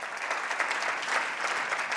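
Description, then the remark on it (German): Steady applause from an audience in Tübingen, given to the Lord in thanks, a dense, continuous patter of many hands clapping at even loudness throughout, with no voices standing out. “Ich denke, da können wir dem Herrn mal einen kräftigen Applaus dafür geben.”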